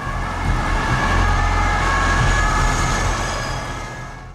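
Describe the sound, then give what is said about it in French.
Four cars roar past at full speed through a dense crowd amid camera flashes, heading to the judicial police in Nanterre: a loud, steady rush of engine noise with a thin whine riding on top, easing away and fading over the last second. No voices. “Euh, quatre bagnoles à fond, traversant cette espèce de, marée humaine.”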